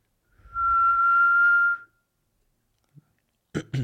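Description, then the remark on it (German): A trill whistle is blown once in a loud, steady blast lasting about a second and a half, followed by silence, a faint click and a voice starting to speak. “Da hat jemand so früh die Trillerpfeife gepfiffen.”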